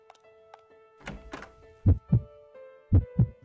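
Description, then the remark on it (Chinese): A baby's heartbeat: two double thumps, low and muffled in a lub-dub rhythm, after a couple of soft whooshing swishes, all over a faint steady electronic hum. No one speaks. “这是我们儿子的心跳声，很强壮，好神。”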